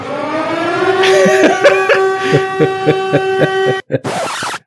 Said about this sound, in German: die Silent Hill Sirene.